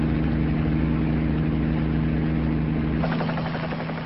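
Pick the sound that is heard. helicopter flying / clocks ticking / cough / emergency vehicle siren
helicopter flying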